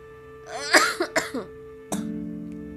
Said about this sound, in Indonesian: aduh oke okay, dicukupkan sekian karena pasti noise banget dengan batuknya gue